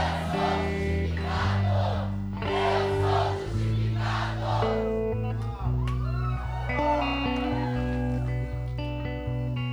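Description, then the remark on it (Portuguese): A large audience shouts the phrase "I am justified" together in loud, repeated bursts, about three in quick succession, over sustained instrumental music that continues after the shouting fades. “Now shout it loud. Agora grita bem alto. I am justified.”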